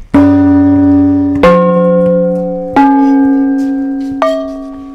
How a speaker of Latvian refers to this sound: Gongi.